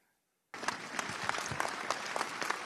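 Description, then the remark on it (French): A crowd at a rally on the town hall forecourt in Saint-Denis, held on a Friday evening in support of an assaulted local elected official, bursts into sustained applause after a brief silence, many hands clapping densely and steadily at a loud, even level for about two seconds. “Des applaudissements pour un rassemblement chargé en émotions.”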